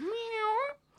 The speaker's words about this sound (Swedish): och så är det katter i bakgrunden här. Om, ja, det, om det låter mjau så är det katter.